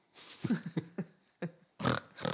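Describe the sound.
A person imitates a pig: a string of short, throaty oinks followed by two longer, rougher snorting grunts, with no other talking.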